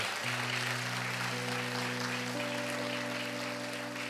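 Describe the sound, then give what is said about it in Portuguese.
A church audience applauds the Lord steadily and loudly throughout, a dense even patter of many hands, while sustained keyboard chords hold underneath and step upward in pitch. “Pode aplaudir o Senhor.”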